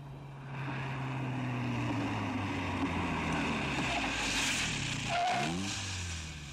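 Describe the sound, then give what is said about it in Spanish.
A car engine hums steadily as the vehicle drives, then its tone drops as it slows and comes to a stop on a dark street, settling into a low idle with no voices. “Detuvo el coche y descendió a la calle oscura.”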